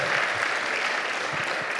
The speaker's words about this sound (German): Applaus für Khaled Boudoir! Khaled Boudoir! Bester Mann.